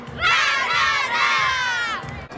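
A group of voices shouts a rhythmic team chant in unison, loud, with rising and falling tones across two bursts before cutting off, a cheer for the Chivas.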